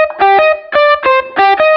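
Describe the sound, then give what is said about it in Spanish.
Distorted electric guitar played through a line input plays a short, loud riff of chopped chords in a steady, punchy rhythm, heard alone with no voices. “Como una guitarra eléctrica mm. por, línea. ¿Querés más distorsión?”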